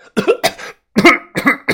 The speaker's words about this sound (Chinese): 他就吃了一口，立即咳嗽了起来。其他几名袍哥高手吃了一口后，同样是面红耳赤，连连的咳嗽。